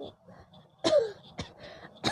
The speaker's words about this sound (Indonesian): batuk dulu